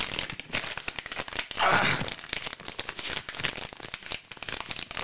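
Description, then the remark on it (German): Busy crumpling and crinkling of leftover Christmas gift wrapping paper being thrown away, a dense stream of sharp crackles and rustles with a brief tearing swell in the middle, fairly loud and continuous throughout. “So, ich muss hier erstmal dieses, diese ganzen Geschenkverpackungen noch von Weihnachten.”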